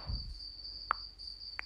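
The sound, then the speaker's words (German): A cricket chirps steadily in the background, a thin high-pitched continuous trill, with a couple of brief soft clicks and no voices present. “Ihr hört diese Scheißgrille im Hintergrund.”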